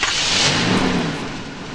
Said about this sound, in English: The door is closed. And you can see the rabbit, the bear, the panda, and another pig. The school bus goes to school.